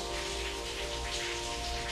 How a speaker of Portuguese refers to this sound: Deus Santo e Poderoso, obrigado por nessa manhã estarmos aqui, nessa manhã de chuva, Senhor. Essa chuva que cai sobre nós é bênção, é refrigério do Senhor para nós.